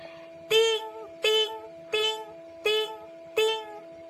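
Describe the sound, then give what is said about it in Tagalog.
Five one-peso coins drop one at a time into a pig-shaped piggy bank, each landing with a bright, ringing metallic clink at a steady, unhurried pace, clear over a faint, constant hum. “tunog ng mga bariya at nabusog ang alkansyang baboy ni Yana”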